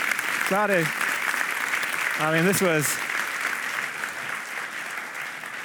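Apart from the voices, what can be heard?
audience applause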